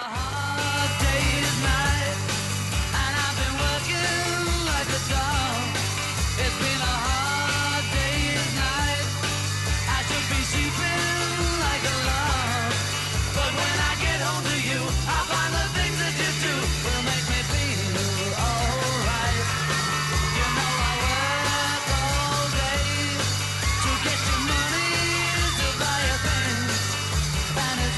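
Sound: screaming fans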